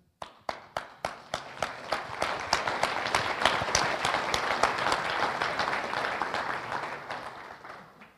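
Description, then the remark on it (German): Congregation applause for God during a sermon begins with a few separate, sharp claps that quickly swell into steady, full clapping from many hands, holding for several seconds before gradually thinning out. “Ich möchte Gott klatschen.”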